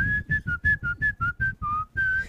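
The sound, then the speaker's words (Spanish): A whistled tune of a song, about ten short, bright notes in a steady bouncing rhythm, clear, ending on a longer held note, with no talking over it. “Es la canción del silbidito.”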